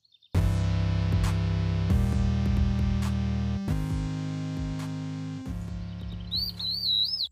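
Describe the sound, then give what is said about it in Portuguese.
A short musical jingle of loud, sustained synth chords that shift every couple of seconds, with bird-like chirps and tweets joining near the end before it cuts off. “Então fica com a gente após a vinheta.”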